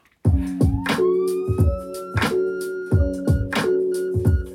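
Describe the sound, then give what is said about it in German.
A synthetic siren sound effect, added to a music track as a closing element, sweeps upward and then holds steady, layered over a loud, regular pounding beat with sustained tones beneath; no one speaks. “Ich würde aber jetzt nochmal diese Sirene irgendwo reinmachen, dass wir so einen Abschluss haben.”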